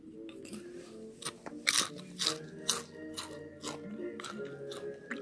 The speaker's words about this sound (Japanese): これどうですかこの咀嚼音的な感じ流行ってるらしいみたいなね。うん。寝る前に聞くと癒される的な。うん。でもあれかな一個、一個かじってすぐ喋っちゃうからダメなんだろうな。